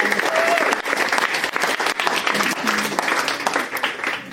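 A crowd applauds steadily for about four seconds, a dense wash of many hands clapping at once, loud, with no break in the sound, giving a round of applause for a contestant after the judges' scores.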